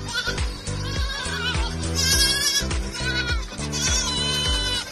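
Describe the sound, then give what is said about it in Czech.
Several goats bleat loudly and almost without pause, their wavering, nasal cries overlapping one another for the whole stretch, with no talking. “Kozy jsou neskutečně inteligentní a vtipná zvířata, která vám zcela jistě zpříjemní začátek i konec vašich home officeů.”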